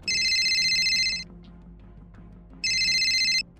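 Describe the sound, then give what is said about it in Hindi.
A phone ringtone for an incoming call from an unknown number trills in two bright, electronic bursts about a second long each, separated by a short pause, loud over a faint low background hum. “और जैसे ही phone cut हुआ एक अनजान नंबर से उन्हें कॉल आई”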